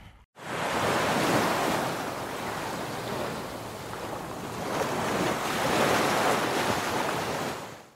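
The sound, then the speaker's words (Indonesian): Steady roar of ocean surf washing onto a beach, broad and continuous with gentle swells in intensity, a wave surging louder midway, with some wind buffeting the microphone and no voices. “Ah, Gila sih, udah lama banget gak sih kita kayak gak ke pantai-pantai lagi. Akhirnya kesini lagi, gila berasa tenang banget hidup”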